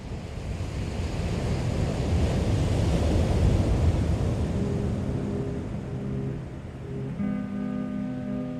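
Ocean waves roll in and break on the shore in a steady, loud wash of surf with some wind rumble, while a low engine-like hum emerges faintly toward the end.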